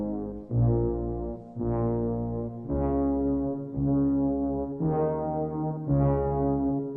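A synthesizer film score opening theme: deep, brassy sustained tones swell in a slow, ominous procession of about six held notes, each roughly a second long, played loudly with no voices.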